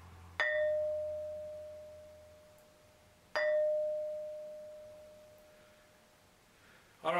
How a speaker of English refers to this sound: There we go. That's better. That's what you want. You realize that this thing really rings like a bell and it reverberates for quite a long time.